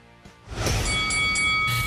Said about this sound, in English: ring the bell